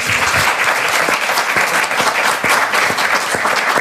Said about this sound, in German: Sie bekommen noch mal einen Applaus.